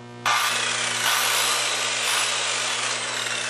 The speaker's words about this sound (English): Okay. Hopefully you heard that outside. That's a legitimate saw.